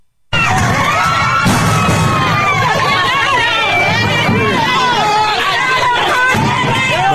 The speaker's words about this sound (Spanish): lo que escucha usted son los gritos despavoridos de muchas madres, padres que llevaban a sus niños con discapacidad, tuvieron que salir corriendo porque entraron los maestros y ante el temor de que hubiera violencia, pues trataron de protegerse.